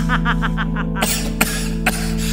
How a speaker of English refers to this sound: How about you turn to your neighbor and the person behind you and give them a little cough in the face?